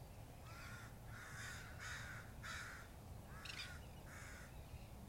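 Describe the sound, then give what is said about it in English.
A crow caws about six times in a steady series of harsh, raspy calls over a constant low outdoor rumble with no one talking. “I'm so grateful for the curls right now, the birds, the moon, everything is just so live right now.”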